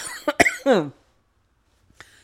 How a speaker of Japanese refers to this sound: 一気に読み上げたら、咳が出た。